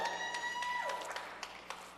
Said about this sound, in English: They're clapping for me here.